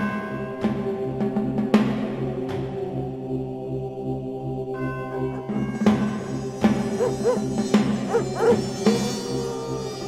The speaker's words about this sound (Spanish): Cuando se oyen a los perros llorar, es porque el lobisón anda cerca. Es una señal de advertencia para que todo aquel que camine en la oscuridad de la noche se esconda lo antes posible.